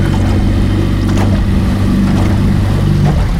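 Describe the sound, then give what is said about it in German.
A motorboat engine drones steadily as the boat heads toward the shore area and is given a bit more throttle, a low rumbling hum with harmonic tones, mixed with splashing water and wind noise throughout. “Genau, dann kann ich ein bisschen mehr Gas Also, dann gibst du ein bisschen mehr Gas”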